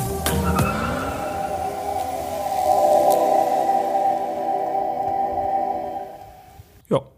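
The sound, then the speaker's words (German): A small Honda e electric car running, its electric motor giving a steady, fairly loud whine with a tonal hum, rising briefly in pitch at the start and holding level for several seconds before fading, then a short thump at the end. “Und ich würde sagen, das Elektroauto, das klingt so.”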